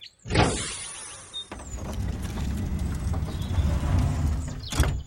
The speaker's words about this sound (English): open the cargo doors.